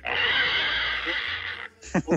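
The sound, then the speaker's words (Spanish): A manager, asked to act like a pig, lets out a loud, raspy squeal imitating a pig, held for about a second and a half, then a short voiced sound follows. “¡Haz como puerco! ¡Haz como puerco!”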